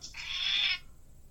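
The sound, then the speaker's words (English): A voice imitates a cat with a single drawn-out, high-pitched meow lasting under a second, fairly loud, then quiet. “oh damn, that was a good fucking cat noise.”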